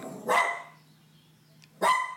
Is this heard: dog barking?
yes